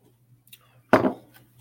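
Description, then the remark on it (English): A single sip from a glass of Rocktown Adventures stout from Rockford, Illinois, brewed with cold brew coffee, cinnamon, vanilla and lactose: one short, abrupt burst that fades within a fraction of a second, preceded by faint small noises, over a steady low hum with no talking. “So here we go. One sip”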